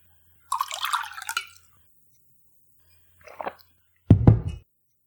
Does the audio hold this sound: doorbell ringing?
no